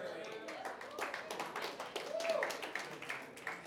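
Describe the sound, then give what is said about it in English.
An audience at a Bible talk claps steadily for a few seconds at the speaker's prompting, a dense patter of many hands at moderate loudness, with faint crowd murmur mixed in. “I made you clap so I can drink the water.”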